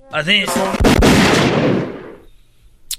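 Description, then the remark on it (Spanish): A short voice is cut off by a loud, sharp firing-squad volley of gunfire, several shots nearly together, rumbling away into a long echoing decay, with one faint crack at the very end. “Ah, pero bueno, la ejecución por fusilamiento, o sea, por disparo, está todavía vigente en los Estados Unidos.”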